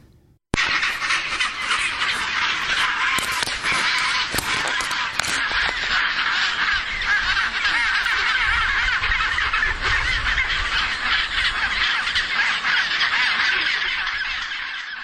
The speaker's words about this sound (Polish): To akurat były pingwiny maskowe. E, jedne z głośniejszych, muszę przyznać.